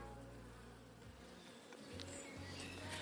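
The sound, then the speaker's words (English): A steady, dense drone of honeybees buzzing around a beehive as a beekeeper in a beekeeping suit goes to the hive, a continuous hum with overlapping wingbeats that briefly thins and then swells back, with no voices. “So, off I went to the hive, me and my beekeeping suit”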